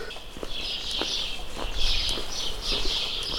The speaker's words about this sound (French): Le chant des oiseaux le matin, c'est énergisant.